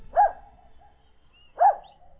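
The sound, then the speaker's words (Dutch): Two sharp dog barks spaced about a second and a half apart, against a quiet background with no talking. “En eh, toen eh, in de vechten was er eh, geblaf.”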